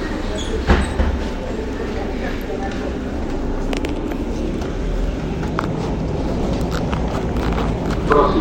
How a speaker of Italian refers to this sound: vabbè ormai devo salire sull'autobus.